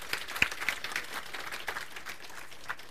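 A church crowd applauds a staff member marking his three-year anniversary, steadily for a few seconds, a dense patter of many hands clapping at a fairly even, moderate loudness with a few sharper individual claps standing out.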